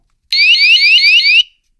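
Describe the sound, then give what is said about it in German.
A loud, shrill electronic alarm from a handheld device in its alarm mode blares for just over a second, its piercing tone rapidly warbling up and down in a steady repeating sweep before cutting off abruptly. “Gut, also das ist dieser Alarmmodus, dann kann er nur das.”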